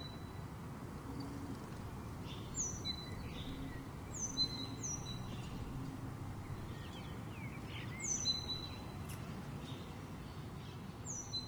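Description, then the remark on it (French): Birds sing in short, high chirping phrases repeated every couple of seconds over a steady low rumble of city traffic in Place du 6 décembre 1989, a small park between two busy roads. No one speaks. “Aujourd'hui, c'est également un des poumons verts de la ville où l'on retrouve une faune bien active, renards, oiseaux et autres ratons laveurs.”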